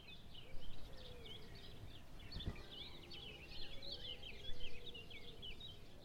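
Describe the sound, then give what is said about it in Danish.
Three birds chirp and sing together in a tree that has lost its leaves in autumn, a busy, overlapping chorus of quick high notes, fairly quiet against a low background rumble, with one brief thump partway through. “Geo kigger op på træet der har tabt de flotte blade, og ser tre fugle, der synger en efterårssang”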